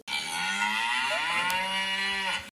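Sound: cow mooing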